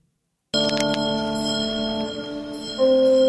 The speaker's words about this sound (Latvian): Jā, es arī gribēju piebilst, šķiet, ka ieraksts ir veikts divkalpojuma laikā, jo ir dzirdami altāra zvaniņi, tā ir?